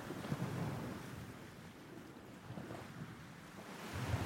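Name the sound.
sea waves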